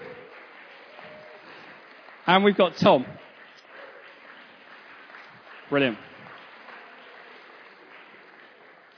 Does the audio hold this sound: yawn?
no